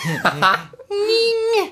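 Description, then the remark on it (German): A microphone squeaks as it is pushed toward a speaker: a short, wobbly squeal and then a longer, steady, whining squeak that bends down at the end. Both are fairly loud. “wie das Ski, wie das quietscht einfach.”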